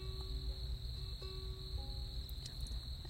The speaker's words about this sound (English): And um, I'm praying that y'all can hear the crickets because holy Hannah. They're so good.